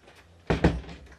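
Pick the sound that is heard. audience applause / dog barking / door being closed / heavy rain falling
door being closed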